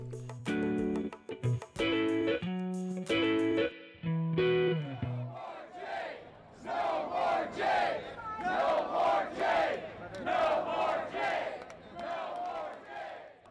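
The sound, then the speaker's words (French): A few seconds of loud tonal music cut to a large crowd of American protesters during the COVID-19 period, chanting in unison, their shouted slogans rising and falling in steady rhythmic bursts. “des slogans qu'on pouvait lire sur les pancartes des Américains et Américaines qui ont participé à des”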